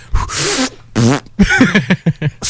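A string of fart sounds, several short blurts and a longer wavering one, fairly loud, apparently made by a voice imitating flatulence rather than the real thing.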